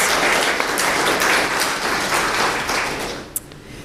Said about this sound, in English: And I would like to thank everyone who came along, and I would also like to thank those in the craft team who put all the work in to produce the cards in the first place. I think a wee round of applause.